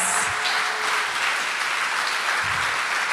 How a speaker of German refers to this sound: Danke alle vier für diese kraftvollen Worte und gebt dir nochmal einen richtig, richtig fetten Applaus.